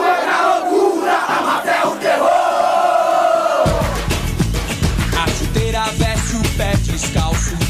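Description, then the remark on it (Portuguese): A Brazil football stadium crowd roars loudly and continuously after a great save by goalkeeper Taffarel, a dense wall of cheering voices; halfway through it becomes rougher and more chaotic with sharper shouts and chants layered in. “Não há garganta que não pare de berrar.”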